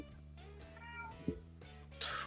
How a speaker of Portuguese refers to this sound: Outro gato.